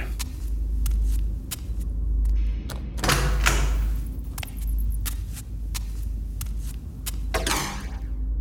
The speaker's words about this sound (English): The, the door behind me closed by itself. I turned around as quickly as I could, but the door, it sounds crazy, but it, it just wasn't there anymore. There was just a concrete wall.